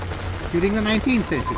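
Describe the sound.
Heavy rain pours in a steady, dense hiss that fills the background, with the head of an architecture firm speaking over the downpour for most of the moment.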